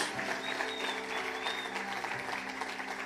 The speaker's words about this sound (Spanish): Dale ese aplauso fuerte a nuestro Señor, a Jesús, nuestro Señor. Es para ti este aplauso fuerte, fuerte, fuerte ese aplauso para nuestro Señor, para ti Cristo Jesús.